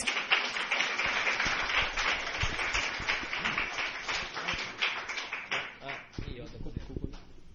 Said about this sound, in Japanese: で、彼の今日は少しその、それに関しての証をお願いしたいと思います。まあ、拍手でお迎えしましょう。お願いします。